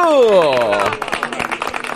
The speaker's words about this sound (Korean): 박수 보내주세요! 박수!